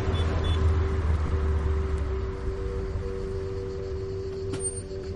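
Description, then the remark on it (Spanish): A white car's engine rumbles with a steady low drone and a faint whine, easing slightly midway as the vehicle pulls up and stops. No one speaks. “coche blanco los adelante y les indica que paren.”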